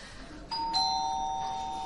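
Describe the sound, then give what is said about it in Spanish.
A doorbell, rung by a burial insurance salesman, sounds two bright chime tones, one at about half a second and a second slightly lower one just after, both sustaining and slowly fading with no talking. “Carmina se levanta, va a la puerta, mira por la mirilla y vuelve hacia su hija.”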